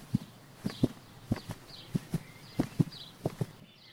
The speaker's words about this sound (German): Das Herz vom Pferd klopft schnell. Oder ist es ihr eigenes Herz, das so laut klopft?